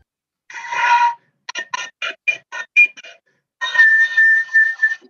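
A wooden fife with visible threads and thicker, denser wood plays a short breathy phrase: a held opening note, then a run of quick, separately tongued notes, and another airy sustained high tone. It sounds slightly rough rather than pure, with no voices.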